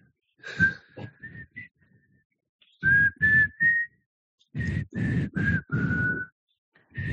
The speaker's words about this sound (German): Ohne das Pfeifen geht das nicht. Ich kann es aber gar nicht.